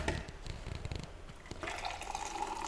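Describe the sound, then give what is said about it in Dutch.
Coffee is poured into a cup. A steady splashing stream rises gradually in pitch as the cup fills, with no talking. “Ik ga mijn koffie inschenken.”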